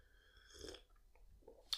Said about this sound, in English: these lovely mugs of tea that you've made us. Mmm, I'm gonna take a slurp.